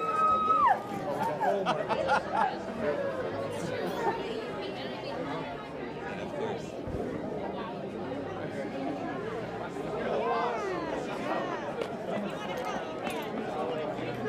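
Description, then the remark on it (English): A large graduation crowd cheers and chatters, many overlapping voices forming a dense, steady roar that holds for about fourteen seconds, with a few higher voices rising above the din. “You know, listening to the cheering, I think they're happy in connection.”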